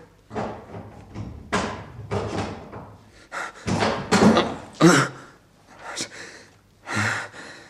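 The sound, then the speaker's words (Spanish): A door is forced open with an iron bar: a series of heavy, uneven bangs and cracking thuds, loud, building to a final burst as it gives way. “Antes había cogido un barrote de hierro que tenía preparado en el descansillo de la escalera.”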